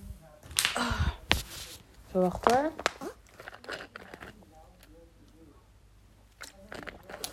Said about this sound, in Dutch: Even een slokje water.